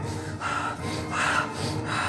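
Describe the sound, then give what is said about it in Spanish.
Someone imitates a person's heavy, agitated breathing: about three rough, gasping breaths in quick succession, fairly loud, with no talking. “Cuando yo abro la casa de acampar y lo miro, este amigo está boca abajo, con sus manos cruzadas, apoyándose como almohada en la frente y está respirando de una manera súper extraña. Súper extraña está respirando, agitadísimo.”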